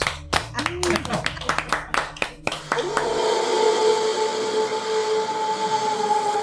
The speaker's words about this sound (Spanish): Buenas noches. Un aplauso. Un aplauso. Gracias. Gracias totales.